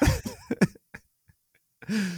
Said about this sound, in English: No, I have a cough.